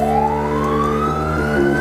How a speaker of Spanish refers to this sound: Y los que han sido diseñados para decirnos algo es el acorde perfecto mayor, que sonaría algo así.